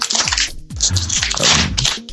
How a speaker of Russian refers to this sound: Ой, ой, ой. ой! Что ест? Что ты там ешь? Извини. Я пакетик с чаем распаковываю.